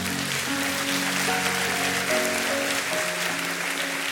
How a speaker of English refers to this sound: How many of us are willing to work it out? Come on, let's clap it up for Jesus.